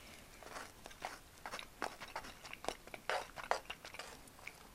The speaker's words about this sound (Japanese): だから今日コンビニのお弁当をこのお昼に食べてるのは超珍しいんですけど